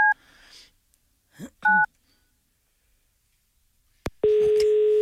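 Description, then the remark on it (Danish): Two short dual-pitched keypad beeps from a phone being dialed, spaced apart with faint muffled sounds between, then a sharp click and a steady, continuous electronic line tone. “Skal vi ringe til ham igen?”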